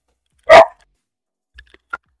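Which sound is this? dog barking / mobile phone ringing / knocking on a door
dog barking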